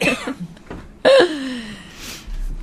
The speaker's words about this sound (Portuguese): Pode tossir, pode tossir.